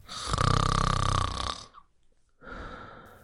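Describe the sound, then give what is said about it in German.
A man lying down snores loudly, one long rasping inhale followed by a brief pause, then a quieter second snore, like someone in deep sleep. “Dann legte er sich nieder, und als er ein Weilchen gelegen hatte, fing er an zu schnarchen wie im tiefsten Schlaf.”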